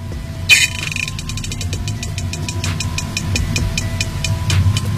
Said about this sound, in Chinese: 这是螺旋桨和潜艇的声音吗？苏联潜艇又回来了吗？”军方说：“是的，这段典型声音和苏联潜艇发出的声音非常类似。